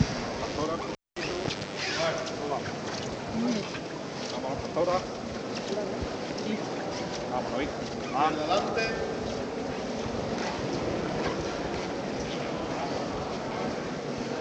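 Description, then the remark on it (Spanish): Steady scraping and shuffling of many feet dragging along the ground as women bearers carry a heavy float with a figure of the risen Christ in a religious procession, a continuous rasping texture with crowd murmur underneath. “Vamos a ir escuchando esos sonidos, ese rechinar de los pies de las costaleras que portan a costal al Cristo resucitado.”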